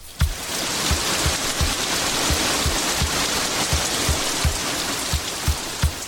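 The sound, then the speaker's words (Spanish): The large Tequendama Falls (Salto del Tequendama) roars steadily, its dense rushing water filling the scene, with soft low thuds pulsing at a regular beat beneath it. No voices are heard. “el cielo se iluminó con un gran rayo que golpeó las rocas de las montañas del sur y ante sus ojos vieron cómo se abría un boquete por donde las aguas empezaban a caer formando una enorme cascada.”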